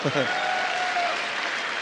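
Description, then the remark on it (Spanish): An audience of young people in a class claps steadily after reciting four laws, a dense wash of many hands that stays loud and even from start to finish, with a brief voice fragment at the very start. “Muy bien, muchachitos, se merecen un aplauso, se merecen un aplauso.”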